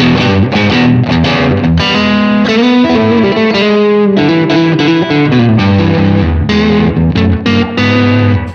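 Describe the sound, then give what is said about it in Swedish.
An electric guitar played through a distorted amp-modeling pedal plays a loud, continuous run of sustained chords and notes, thick with gain and buzzing overtones, a modern-sounding tone, without pause or any voices. “De blir det blir liksom lite för gainigt. Det låter lite för modernt.”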